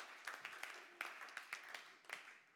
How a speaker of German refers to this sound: Komm mal, lass uns dafür mal einen Applaus geben. Ja, tatsächlich.